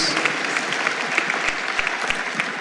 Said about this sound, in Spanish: Podemos dar un aplauso al Señor por esos discípulos.